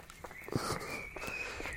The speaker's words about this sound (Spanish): Si se escucha la ropa, lo siento, es que voy corriendo.